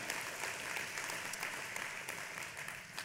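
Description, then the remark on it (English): A crowd at a church claps steadily for about three seconds for volunteers, a dense, even patter of many hands at moderate volume with no voices rising above it. “Yeah, you should applaud for these guys.”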